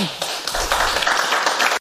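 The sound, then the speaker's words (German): Loud applause from a crowd, a dense, steady patter of many hands clapping that fills the whole stretch without pause, then cuts off abruptly at the end. “Da wird laut geklatscht.”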